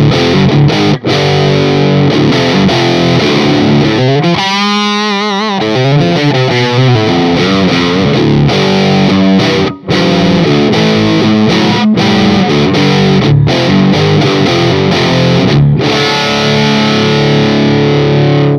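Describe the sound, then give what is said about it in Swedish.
A loud, heavily distorted electric guitar plays sustained chords and riffs through a new, miked-up Olofsson BJF100 amplifier, thick and full-bodied, with a brief wavering bend in the middle; no voices are heard. “eh, det, vi har mickat upp en eh, en ny olofsson förstärkare som heter BJF100”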